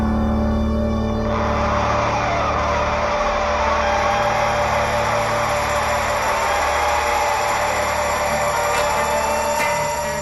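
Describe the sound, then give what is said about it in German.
A loud, steady engine roar with a jet-like whoosh at the start of a rock song, droning continuously for the whole stretch, with a low mechanical hum underneath and no voices. “Und dann diese Dschungelgeräusche und diese, was sind das, Motoren, Jetgeräusche am Anfang.”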